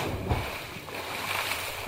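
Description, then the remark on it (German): A single splash as a broccoli drops into a well, followed by a steady wash of churning, sloshing water for the rest of the moment, moderately loud with no voices. “Der Brokkoli wachte auf, erschrak sich und plumpste in den Brunnen.”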